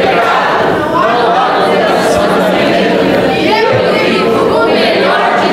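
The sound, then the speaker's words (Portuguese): After a count of one, two, three, a large crowd shouts a battle cry together in unison, chanting 'Sou filho de Deus', loud and dense, many voices blending into one continuous chant that fills the space for several seconds. “Vamos declarar nosso grito de guerra, vamos lá?”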